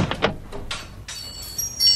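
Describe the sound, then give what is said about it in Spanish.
A door opens with a quick series of clunks and rattles, then a sustained high-pitched creak that drags on to the end, clear with no voices. “Esta puerta se abre de nuevo”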